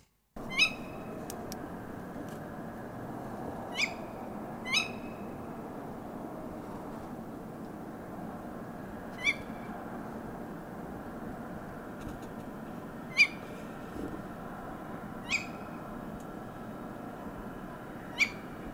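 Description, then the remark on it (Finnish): A tawny owl calls at night, giving short, sharp calls, about eight of them at irregular intervals, standing out clearly above a steady low background rumble, with no voices. “Joo, yö, laji Eli lehtopöllö on, on kyseessä kyllä tässä tapauksessa.”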